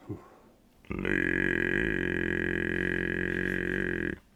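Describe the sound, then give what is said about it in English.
A very low, croaking human voice holds a buzzy, frog-like drone for about three seconds, loud, with a bright whistling overtone riding on top before it stops abruptly. “you sound a bit like how... a frog, but yeah.”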